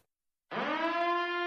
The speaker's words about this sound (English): That sound you hear is my time machine letting me know it's time to return to our own world.